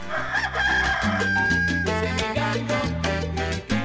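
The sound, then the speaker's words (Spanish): A rooster crows in one drawn-out call, set against loud, steady background music with a thumping bass line that carries through the whole moment. “Desde los 14 pasea gallos y aprendió que en este oficio hay que ser muy puntual porque el gallo se levanta bien temprano.”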